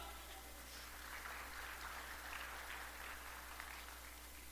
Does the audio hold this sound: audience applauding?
yes